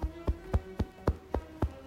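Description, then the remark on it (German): Steady, soft slaps of a right hand tapping up the left arm, from the back of the hand up the upper arm to the shoulder, about four per second in an even rhythm, fairly quiet with no talking. “Beginne mit dem Klopfen auf dem Handrücken und klopfe dich langsam dem Oberarm bis zur Schulter hoch.”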